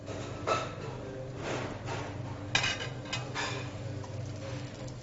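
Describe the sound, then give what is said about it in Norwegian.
Vegetables sizzle in olive oil in a piping hot pot for a lamb shank dish, a steady crackling hiss broken by a few sharp clanks of a utensil against metal, over a low constant hum, moderately loud. “Da skal vi putte alt i en rykende varm kjele. Først olivenolje, og så grønnsakene. Så surrer vi dette her inn og blander inn krydderet, urtene, sausen og ikke minst lammet.”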